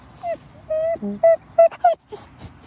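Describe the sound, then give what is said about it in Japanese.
A Hokkaido dog whines in a series of short, high, nasal whimpers, five or six rising and falling cries in quick succession, with faint outdoor background noise, on a cool morning walk along the Toyohira River bank. “お前も喋るかワンワン言えワンワン言わないの”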